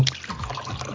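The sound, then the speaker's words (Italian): A person drinking: a brief run of wet, liquid swallowing and slurping sounds lasting about a second, with no talking. “Chi è che beve?”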